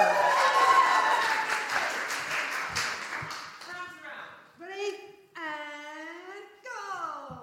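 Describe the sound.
Enthusiastic audience applause for a person coming to the front, a dense wash of many hands clapping, fills the first half and then fades as a voice begins speaking over the tail end.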